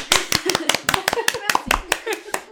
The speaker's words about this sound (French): Ouais, on peut l'applaudir. On applaudit.